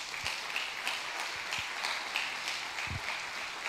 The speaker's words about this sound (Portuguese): Aplauda Jesus!